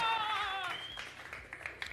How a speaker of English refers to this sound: A big, big round of applause.